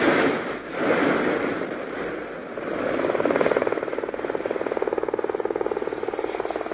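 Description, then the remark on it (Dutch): Two helicopters lift off from the recovery ship Enterprise on the Atlantic Ocean just after sunrise, to quickly recover the Apollo crew. Their rotors roar with a broad whooshing engine noise that settles into a steady rapid chopping pulse, with no voices over it. “Dit is dan het moederschip Enterprise, waar zojuist die twee helikopters zijn opgestegen...”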